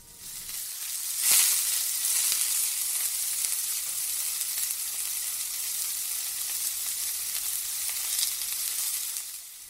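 Steady, crackling sizzle of food cooking on a barbecue grill, fairly loud, with a brief sharper burst of spitting near the start and no voices.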